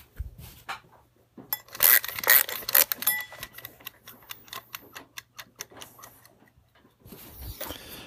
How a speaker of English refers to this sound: Are you going to join me for 20 minutes of something? Let's wind up the timer.